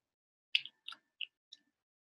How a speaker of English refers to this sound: What if we turn the rest of the episode into ASMR of you chewing that mm. fucking bread? Can you hear it? Does it sound really bad? Open your mouth a little bit.